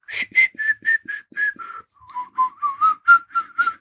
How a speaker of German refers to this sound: Also ich lerne das Flöten, glaube ich, nicht mehr oder das Pfeifen oder wie immer wir das jetzt nennen wollen.